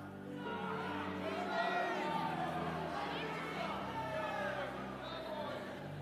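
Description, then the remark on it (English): A large crowd shouts all at once, many voices overlapping into a loud, sustained roar of called-out football team names, such as the Cowboys, and cheers that holds steady for several seconds, on Super Bowl day. “Somebody shouted Cowboys.”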